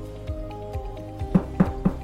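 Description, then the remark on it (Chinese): Three crisp knocks on the wooden door of a small wooden cabin in a forest, in quick, even succession, preceded by a few soft, dull thumps, all over a faint steady musical background with no talking. “因为咕噜咕噜的肚子实在是太饿了，它管不着那是猎人还是樵夫的家，它决定要先去敲敲门。”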